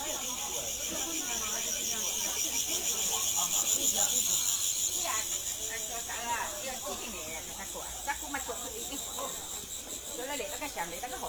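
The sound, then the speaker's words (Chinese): A steady, high-pitched cicada drone runs throughout at a flower and bird market, layered with scattered chirps and calls from birds, while a murmur of voices and background bustle sits underneath. “花鸟市场的蝉鸣鸟叫”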